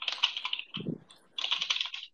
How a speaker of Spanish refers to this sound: Lo escucho teclear. Ahí está, te estaba mandando WhatsApp